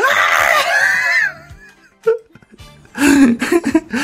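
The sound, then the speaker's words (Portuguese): A man in a played audio message lets out a loud, drawn-out scream lasting over a second, followed by a brief pause, a short yelp, and then a burst of strained, shouting vocal outbursts. “o grito dele é equivalente ao professor Girafales”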